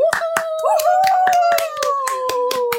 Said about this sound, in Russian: Аплодисменты!